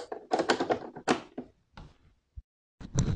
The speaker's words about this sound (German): Mal eben hier das Ladekabel einstecken.